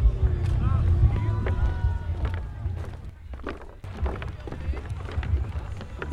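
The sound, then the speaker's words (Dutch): Busy festival campsite ambience at the Paaspop Camping, recorded while walking: a steady low rumble with scattered crowd voices, brief clatters and bumps, and the occasional faint tonal sound drifting through. “nou, zoals je hoort zijn we inmiddels een beetje aangekomen op de camping.”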